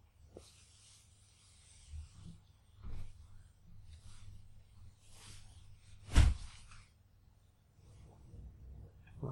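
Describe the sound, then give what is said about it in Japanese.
A window slides shut with soft scraping, rubbing whooshes followed by one sharp, louder knock as it closes, then quiet handling noise, with no talking. “普通に窓閉めるところも 聞こえるっていう。”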